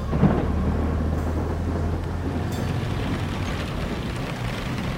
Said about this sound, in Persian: چه بارونی داره میشه امیدوارم طرفای ما بارون اینجوری نباشه